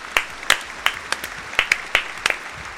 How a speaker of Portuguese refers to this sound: Palmas, Palmas pra, ele. pra ele.